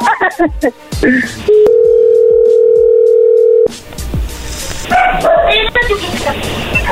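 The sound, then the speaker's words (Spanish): A steady, unbroken dial tone hums for about two seconds after a phone line cuts off, flanked by bursts of chatter and sharp, yappy dog barks before and after. “oye, perdón, se cortó.”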